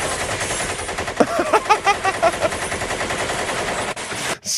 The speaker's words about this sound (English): so much gunfire.